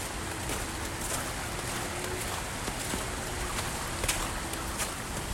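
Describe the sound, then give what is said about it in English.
A steady, loud roar of fast-moving water rushing past close by, heard from beside the water while holding onto a fence, continuous and unbroken, with a few faint clicks and knocks scattered through it and no one talking. “As once again, I'm dangerously close to the water, so bear with me as I'm hugging a fence, holding on for dear life, because that water is moving fast.”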